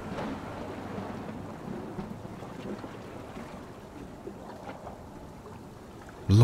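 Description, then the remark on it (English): A steady roar of a night thunderstorm at sea, with crashing ocean waves, rain and wind hissing throughout and low rumbles of thunder rolling underneath, ending in a sudden loud burst. “lightning forks down from the dark skies, electrifying the clouds into a blue and purple glow of unseen heat.”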